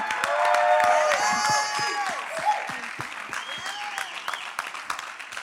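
An audience at the Purpose Church claps steadily with scattered cheers and whoops as a woman comes forward to share her story, the applause loudest at first and then thinning out over several seconds, with a few voices calling out.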